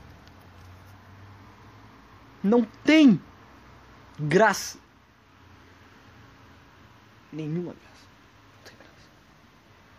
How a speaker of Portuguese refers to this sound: Tá chovendo, deve ter ficado um puta chiado de merda no meu podcast, no meu episódio agora. Desculpa.